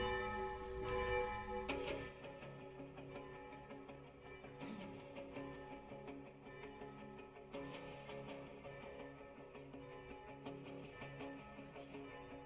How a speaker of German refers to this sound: Gucken wir mal, ob die Musik lauter ist als die Glocken.